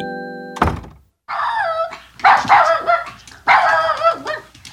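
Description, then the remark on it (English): A door thuds shut as a boy arrives home from school on a Friday afternoon, then his little dog, Mitzi, lets out a run of excited, high-pitched yips and whining barks in three quick bursts, greeting him. “he was greeted as usual by his little dog, Mitzi.”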